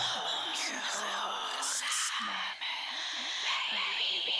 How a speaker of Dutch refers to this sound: Ook hier heeft ze net als bij in het loonlokaal het zangdeel nog mooi gefluisterd. Het is een beetje achter elkaar aan, dat is niet helemaal tegelijk.